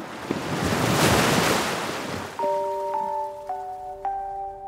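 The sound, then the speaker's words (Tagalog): A single ocean wave rushes up loudly onto the shore and slowly fades away, then soft sustained musical tones enter over the lingering wash of water. No one speaks. “Ilang minuto akong nakatitig sa dagat.”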